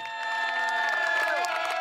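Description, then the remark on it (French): Party activists cheer encouragement during Jean-Luc Mélenchon's electoral campaign, many voices shouting and whooping together in a loud, continuous roar with sustained high-pitched calls rising above the mass. “Des cris d'encouragement, il en faudra de la part des militants.”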